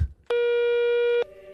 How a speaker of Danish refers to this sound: Han lægger på igen. Så ringer telefonen igen.